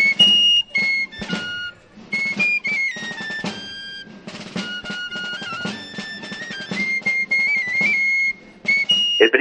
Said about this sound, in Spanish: Pelao es una de las marchas eh, más características de Cartagena